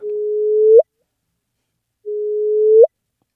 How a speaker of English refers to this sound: So that is the sound of two black holes colliding.